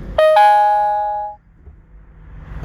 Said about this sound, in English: Okay, I got a text here. Let's see what this text says.